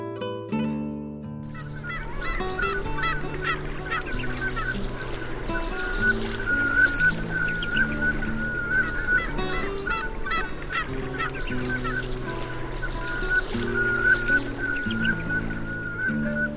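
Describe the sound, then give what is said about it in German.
Velvet scoters call continuously for about sixteen seconds, a dense chorus of repeated nasal, honking notes from several birds over a steady low droning background. “Das war die Samtente.”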